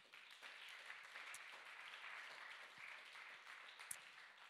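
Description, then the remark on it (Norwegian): A crowd claps steadily and continuously throughout, a dense, even patter of many hands with a few sharper individual claps standing out; no one speaks over it. “En applaus for du som gadd, og du som orka.”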